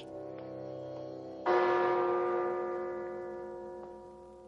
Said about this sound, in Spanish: Gira con decisión y se dirige al banco. Sube la escalinata parsimonioso. llama al timbre.